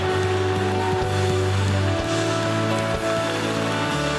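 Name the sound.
audience applause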